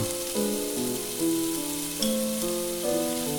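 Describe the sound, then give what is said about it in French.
Small diced pieces of food sizzle steadily as they brown in a pan, a continuous bright hiss running under soft music whose sustained notes change every second or so. No one speaks. “Donc, je les laisse bien revenir.”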